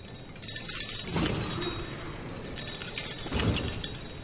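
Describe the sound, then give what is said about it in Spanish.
A steady shimmer of tinkling glass teardrop ornaments jangling together on a procession float during the Holy Week Procession of Silence in Cartagena, continuous, with a couple of brighter, louder swells over a noisy outdoor background. “la procesión del silencio, eh, se ve interrumpido por el sonido eh, a la par de los achotes cuando se depositan en el suelo, el sonido del tintineo, de las lágrimas, de las cartelas.”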